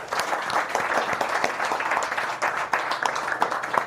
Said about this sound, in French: vous pouvez l'applaudir, il est là.